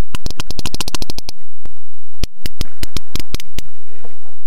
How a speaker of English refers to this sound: And he's gathered all of these recordings of sperm whales talking.